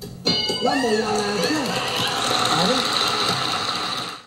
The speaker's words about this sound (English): On the game show Family Feud, when one of the contestants guesses an answer, a survey response that happens to be the number one response, here's what it sounds like